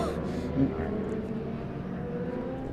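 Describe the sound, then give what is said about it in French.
Motorcycle engines roar steadily at race pace during a motorcycle race, a continuous droning snarl with no break, filling the whole stretch. “alors là, on a une course de moto apparemment.”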